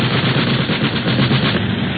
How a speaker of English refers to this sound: A machine gun. Hang on, people. They ain't gonna crash into us. They're just trying to blow us out of the sky.